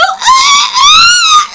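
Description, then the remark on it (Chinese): A voice mimics a high note cracking during a singing performance at a concert: a loud, shrill, wavering squeal held for over a second with a brief dip in the middle, harsh and raspy rather than clean. “就是一到那个高音的时候，我就，差”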